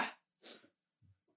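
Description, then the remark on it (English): Two sharp, breathy sneezes in quick succession, fairly close and moderately loud, followed by a brief low murmur and then quiet. “Bless you.”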